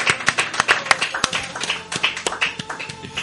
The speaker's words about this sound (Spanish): Y por último, y, no menos. Eso, por último, y no menos importante, a, este maravilloso público. Un aplauso. Gracias, gracias.